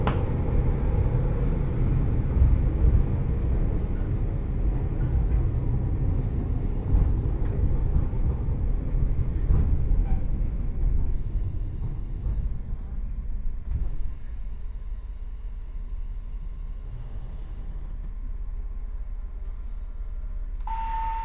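A local one-man train on the Jōhana Line in Japan, travelling from Abura to Jōhana, rumbles steadily along the line, a dense low-pitched drone with rattling and faint high whines, easing slightly in intensity partway through before a brief tone near the end.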